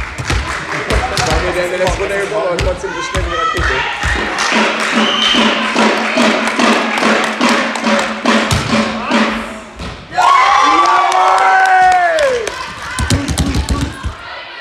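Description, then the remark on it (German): Busy volleyball match crowd in a sports hall: a steady roar of chatter and cheering with repeated sharp thuds of ball hits, then a loud surge of shouting and whistling cheers near the end. “Und ich war bei meinem ersten ähm, Volleyballspiel wieder zum Zugucken bei meiner Frau, my wife.”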